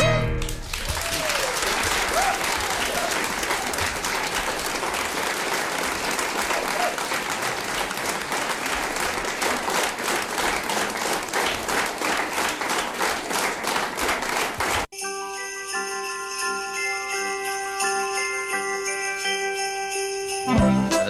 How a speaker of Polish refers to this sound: te brawa to ja myślę, że nie tylko dla wykonawcy